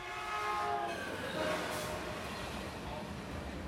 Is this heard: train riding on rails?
yes